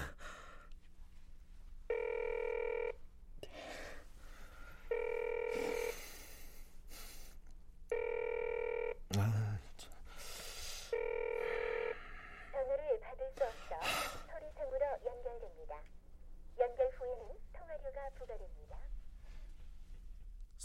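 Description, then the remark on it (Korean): A phone rings four times in steady, evenly spaced bursts of electronic tone, and nobody picks up; afterward a voice sighs and reacts in frustration. “성미은이 계속 전화를 받지 않자”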